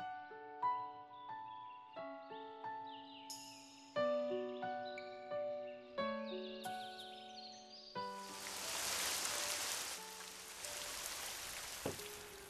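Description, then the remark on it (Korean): Soft plucked melody plays, then a sudden rain shower bursts in and takes over, a dense steady hiss of heavy rain, with faint musical notes still sounding beneath it, in a radio drama of Hwang Sun-won's story Sonagi. “먼 산으로 놀러 갔던 소년과 소녀는 소나기를 만나게 되고 또 틀린 일기예보에 기상청 아저씨를 원망하며 쓰러져가는 원두막으로 들어가 비를 피하죠.”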